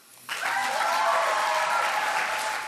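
Applause from an audience starts abruptly after a brief quiet moment, then holds as a steady, dense wash of clapping at an even loudness throughout, with no voices on top.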